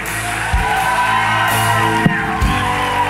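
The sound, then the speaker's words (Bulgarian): A man shouts loudly and continuously for about three seconds in a church, his strained voice forceful, with a faint crowd-like murmur and a few thumps underneath. “Защото съм в църква, която нещо не вика и искам аз да извикам.”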